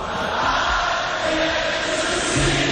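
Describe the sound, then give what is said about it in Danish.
A large concert audience sings along together, a dense, steady wash of many voices at constant loudness, sounding somewhat blurred. “Jamen, det er jo publikum, der synger.”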